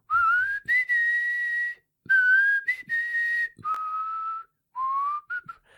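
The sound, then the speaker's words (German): A person whistles a slow, eerie melody of long sustained notes in short phrases separated by brief pauses, clear with no talking, imitating the theme tune of a television series. “dieses Gepfeife von der Tonlage.”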